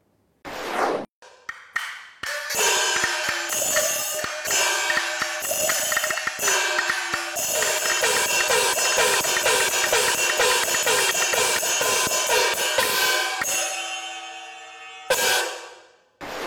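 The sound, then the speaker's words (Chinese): A Chinese national percussion group of teachers and students plays a luogu jing (gong-and-drum pattern) combination on gongs, cymbals and a bangu (ban drum): a fast, dense rhythmic passage of sharp wooden drum taps, bright ringing metal crashes and repeated gong strokes with pitch glides, ending abruptly after a final clash. “先给大家呃简单的展示一个呃锣鼓经组合，你们听一下是个什么样的效果。”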